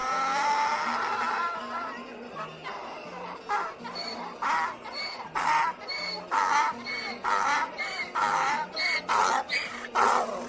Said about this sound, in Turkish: Tam ağzını açacakmış ki daha ilk hecesinde eşek yine uzun uzun anırmış.